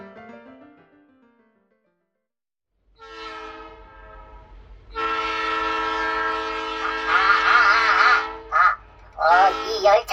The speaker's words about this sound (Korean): 모두 이 열차는 파리에 도착합니다. 파리!